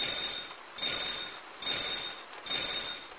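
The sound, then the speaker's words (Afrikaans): A mother's mobile phone rings with a bright electronic trill, repeating in four even bursts with short gaps between them, high-pitched and steady, with no voices. “Voordat Tilly kan antwoord, lui mamma se selfoon.”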